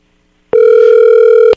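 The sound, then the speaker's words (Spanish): A steady telephone dial tone on an incoming phone call sounds alone for about a second after brief silence, loud and unwavering, with clicks at its start and end as the line connects and drops. “Vamos a, la llamada telefónica.”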